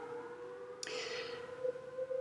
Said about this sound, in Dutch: Je hoort nu ook trouwens de sirenes. Waar komt dat dan vandaan? Ja, wij zijn onmiddellijk betrapt op het feit dat wij dit op de eerste maandag van de maand aan het opnemen zijn. 12 uur.